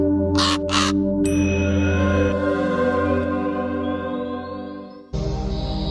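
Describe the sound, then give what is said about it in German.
Two quick, harsh raven caws ring out loudly at the start as the raven draws from a deck of cards, followed by a sustained musical jingle with layered tones that swells and then shifts near the end. “Der Rab zieht aus dem Kartenstapel.”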